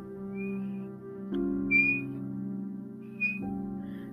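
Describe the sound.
Three short, high whistle notes, bird-like chirps spaced about a second apart, ring out over a steady low droning hum; no one speaks. The whistle is like a bird's call and comes from trees across a street.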